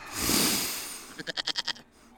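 goats bleating

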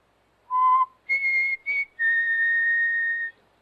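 person whistling

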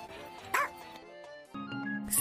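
dog barking

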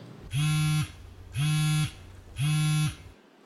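mobile phone ringing

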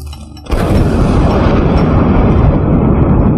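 loud thunderclap

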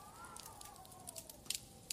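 crackling fireplace

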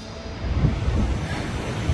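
boat on a river

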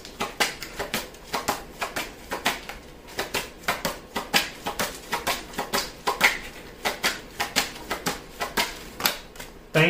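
shuffling and drawing cards

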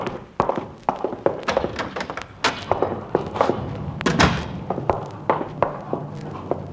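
door opening and shutting

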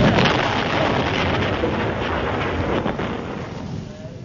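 explosion sound effect

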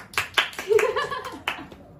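hand clapping

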